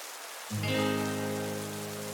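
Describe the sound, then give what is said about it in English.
Heavy rain hisses steadily throughout, and after about half a second a loud, sustained humming drone with rich overtones enters and rings over the downpour. “The rain is coming down heavy now.”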